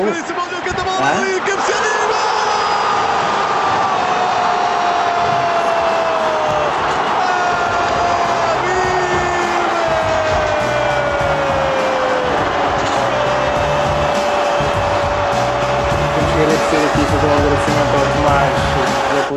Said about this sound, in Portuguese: tínhamos o estádio, o estádio de cidade de Coimbra a abarrotar, estava cheinho aquilo. Uhum estava um ambiente espetacular. E lembro-me, lembro do ambiente eh, espetáculo depois do golo aos 90, aos 94 do, do Habib.